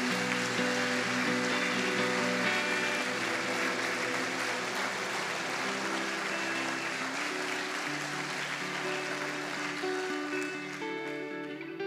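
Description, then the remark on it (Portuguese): A church audience claps steadily and loudly for Jesus for about twelve seconds, a dense wash of hand claps over sustained musical chords, easing off slightly at the very end. “Pode dar um salve de palmas para Jesus, amado.”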